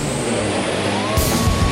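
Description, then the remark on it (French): A loud truck engine roars continuously, then surges with a rougher, deeper burst of revving partway through, with no voices. “Les 1er et 2, 3 septembre prochains, ne manquez pas la 18e édition des accélérations de camions de Saint-Joseph-de-Beauce.”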